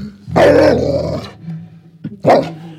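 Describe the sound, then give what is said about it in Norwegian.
A dog lets out a long, loud snarling growl, then a brief pause and a sharp bark, with no voices present. “Jeg tror det er det med bjeffinga som er verst.”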